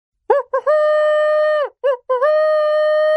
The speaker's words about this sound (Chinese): 于是他吹起了哨子。